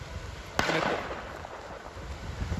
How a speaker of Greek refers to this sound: Πάμε να φύγουμε γιατί αρχίζουν οι πυροβολισμοί. Προσπαθούμε να βρούμε ένα καλύτερο μέρος για να καλυφθούμε.